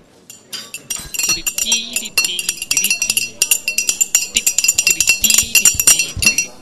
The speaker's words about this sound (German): Wie machen wir denn jetzt hier das Ende ohne Musik? Äh. Wir könnten rhythmisch mit unseren Eseltassen und den Löffeln hantieren.